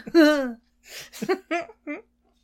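A drawn-out, tonal burp with a falling pitch, followed by a few short, choppy throaty bursts, close and fairly loud with no talking.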